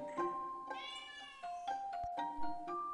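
A cat meows several times in quick succession, each call clear with rising and falling pitch, filling the short moment with no voices around it.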